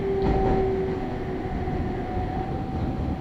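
A Nagoya Railroad local commuter train travelling from Agui to Utsumi rolls steadily along the rails with a dense, continuous rumble and a sustained high tonal whine, loud throughout with no voices.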